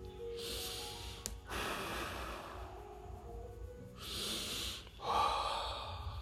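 Slow, deep breaths drawn in and pushed out, several long airy inhales and exhales in sequence, fairly loud with a rushing, noisy texture and no talking.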